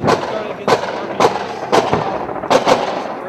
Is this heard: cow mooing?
no